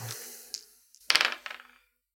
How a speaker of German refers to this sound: Von daher hätte ich äh, einen Würfelwurf in Sachen Navigation.